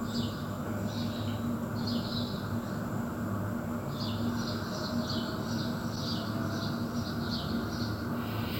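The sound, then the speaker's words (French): Birds chirp outdoors at 10 in the morning in quick repeated bursts, a short pair early on and then a longer run of chirps, over a steady low background rumble. “On voit quelques personnes s'affairer dans leurs appartements, mais dehors, il n'y a pas un bruit, à part celui des oiseaux.”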